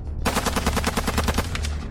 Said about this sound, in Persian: به محض باز شدن لای در از پایین به سمتم شلیک شد